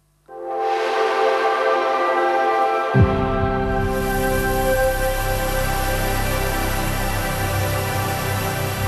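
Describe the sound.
An Xbox Series X startup sound: a sustained synthesized chord swells in, then a deep bass tone drops in and holds beneath it, ringing steady and loud with no talking.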